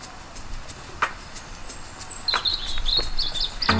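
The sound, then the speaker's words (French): Birdsong chirps in short, bright trills, picking up in the second half with a quick run of high warbling notes over faint outdoor background noise. No one speaks. “des fois le, chant peut aider, mais comme euh, le champ lexical d'un oiseau est très diversifié, euh, c'est pas facile euh, parfois.”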